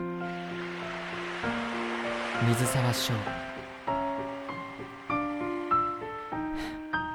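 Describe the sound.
Ocean waves, stirred by an autumn wind, wash softly in the background beneath gentle melodic music with sustained tones and struck notes as a bottle is floated on the sea and carried out; a brief voice is heard, and the surf fades as the music carries on.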